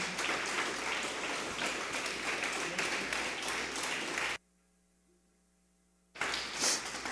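An audience applauds loudly during a sermon in a dense, steady wash of clapping that cuts off abruptly, leaving nearly two seconds of faint hum before the applause bursts back in.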